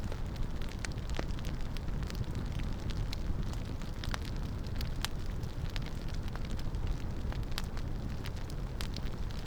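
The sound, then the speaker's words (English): A campfire burns steadily, wood crackling and popping in sharp irregular snaps over a low, dense roar of flames, continuous with no voices. “And perhaps you notice the sounds of wood burning.”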